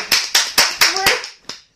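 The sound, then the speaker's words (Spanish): A thin round of applause for a listener who suggested a paso doble: five crisp, evenly spaced hand claps followed by one last clap after a short pause, sharp and bright with no talking. “Un aplauso, por favor”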